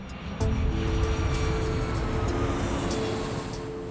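A steady, loud roar of a jet engine as an airplane headed west passes overhead, a broad rumbling drone that holds throughout and fades slightly toward the end.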